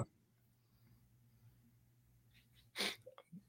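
A single sharp, explosive sneeze bursts out near the end after a quiet stretch of low background hum, followed by a few soft breathy sounds.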